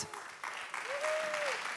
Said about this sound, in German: Und ich möchte den David Picardi hier auf der Bühne begrüßen. Herzlichen Applaus für dich, David.